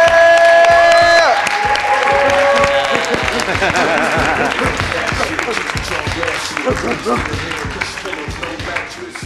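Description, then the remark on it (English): A comedy show audience claps and cheers loudly as comedians are welcomed to the stage, with sustained applause and a few high whoops and shouts rising over the noise, gradually tapering slightly as it continues. “Please keep that round of applause going and welcome to the stage”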